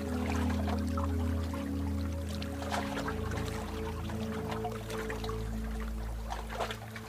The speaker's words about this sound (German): Die Sonne, das Wellenrauschen und auch diesen besonderen Duft, dieses Salzige vom Meer.